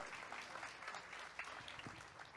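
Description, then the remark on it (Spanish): An audience applauds steadily, a dense wash of many hands clapping at an even level throughout with no voices standing out, applauding the people who load the truck at six thirty in the morning. “un aplauso a esas personas también.”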